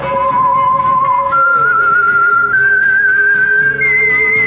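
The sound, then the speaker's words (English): A clear whistled melody, the theme of the radio show The Whistler, glides and steps upward through a few sustained notes, carried over a steady low musical accompaniment with no talking. “The Whistler.”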